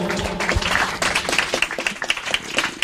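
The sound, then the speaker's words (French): A crowd applauds steadily, dense overlapping claps forming a loud, continuous wash of sound with a few sharper individual claps standing out, and no speech over it. “On peut les applaudir très fort, bien évidemment.”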